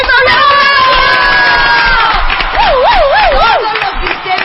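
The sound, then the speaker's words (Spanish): A loud crowd cheers and applauds for pilots, copilots and first officers of Aeroméxico, with high whoops and shouts rising above a dense wash of clapping; one voice trills a wavering, siren-like whoop near the end. “un aplauso para nuestros pilotos y copilotas y pilotas y primeros oficiales de Aeroméxico”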